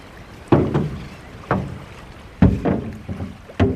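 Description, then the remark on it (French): A wooden dugout canoe (pirogue) moves through water in Casamance with repeated paddle strokes, each a splashy thud about a second apart, fairly loud over a steady outdoor hiss, with no voices. “Faut se positionne avec la pirogue avant que la marée blesse.”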